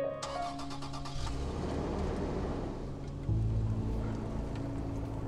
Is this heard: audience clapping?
no